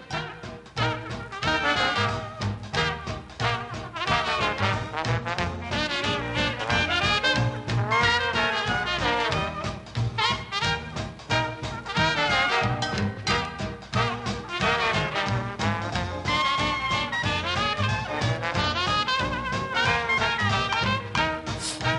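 A 1944 recording of a lively early New Orleans–style jazz ensemble led by a trombone, with horns weaving a clear, bouncy melody over a steady rhythmic pulse, played continuously and fairly loud without any talking.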